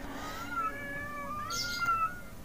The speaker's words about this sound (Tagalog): Sa sobrang liksi ng mga busaw, dalawa ang umatake sa akin at ang mga pusa sa aming paligid at ay lalong naging mabalasik.